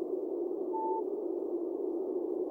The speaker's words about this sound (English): these space sounds.